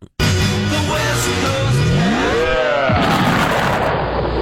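A loud explosion sound effect bursts in abruptly and roars on as a sustained, rumbling blast, with a swooping tone rising and falling partway through; no one speaks.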